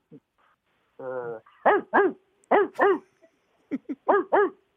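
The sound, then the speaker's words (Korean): A person imitates a big dog barking: a low rumbling growl, then several deep, loud woofs in pairs, ending with a quicker run of barks. “예, 대형견이에요. 대형견.”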